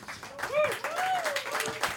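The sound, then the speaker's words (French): An audience at a live Monday evening show applauds in a steady wash of clapping, with a voice or cheer rising and falling over it throughout. “On peut l'applaudir tout de suite euh, par euh,”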